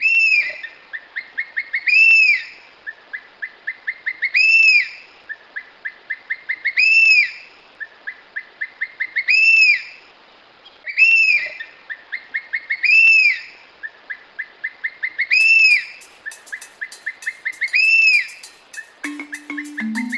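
A black hawk-eagle (gavião-pega-macaco, Spizaetus tyrannus) calls loudly and repeatedly, each phrase a quick run of short whistled notes building to a strong, drawn-out whistle, repeated about eight times at a steady pace with no voices.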